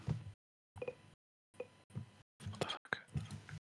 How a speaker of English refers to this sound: whispering like a crazy dude, though.